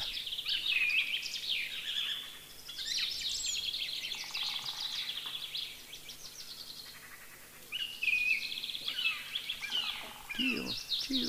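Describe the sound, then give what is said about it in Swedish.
A song thrush sings bright, varied phrases, each repeated a few times in quick bursts with short pauses between, clear against a quiet background. “Ni hör, den upprepar temat några gånger. Ganska varierat. Improviserar och lirar.”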